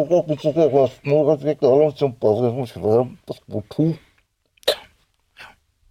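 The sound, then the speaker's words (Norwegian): A voice mimics a garbled train station loudspeaker announcement, about four seconds of muffled, unintelligible babble in a sing-song cadence, followed by a couple of short sharp breathy bursts and quiet. “Jeg sto en gang og så ventet på et tog. Jaha. Ja, og da kom det over høyttaleren.”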